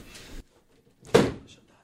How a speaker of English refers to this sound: Door slam and everything.